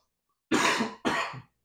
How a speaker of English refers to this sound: Sorry about my fucking cough, by the way.